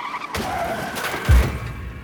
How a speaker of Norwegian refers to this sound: Resultatet er at bilen skjærer ut til siden, suser forbi Julia